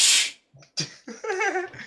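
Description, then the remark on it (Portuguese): A dog barks in a few sharp bursts, the first harsh and noisy, the last a longer, wavering yelp, with brief silences between them and no one talking. “Porra, tá, cachorro que é latino, que eu tô gravando podcast, cara.”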